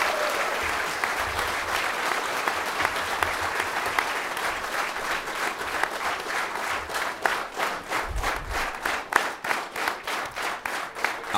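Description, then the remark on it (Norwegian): Warm, sustained applause from an audience for a player after an on-stage chat, a dense steady wash of many hands clapping that holds at full strength and turns into more distinct rhythmic claps toward the end. “Gi han nok en varm applaus, dere.”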